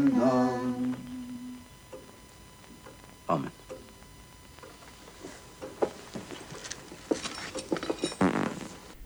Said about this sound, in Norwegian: Eh, og så altså, er det overraskende mye promping her